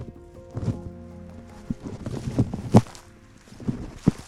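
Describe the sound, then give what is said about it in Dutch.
Footsteps walking over heathland, a handful of dull crunching steps at an uneven pace, with a low steady background rumble and no talking. “Nou, we lopen eens even een stukje verder de hei op en daar staat een boom.”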